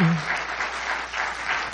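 A crowd claps together in sustained applause, a dense, steady wash of many hands clapping at once with no voices standing out.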